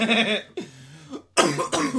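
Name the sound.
coughing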